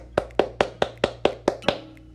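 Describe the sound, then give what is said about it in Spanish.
Eight sharp hand claps land in a steady, fairly quick rhythm, each a crisp slap with a brief tail. A low, steady hum sits underneath, and no one speaks. “Todos aplaudiendo, por favor.”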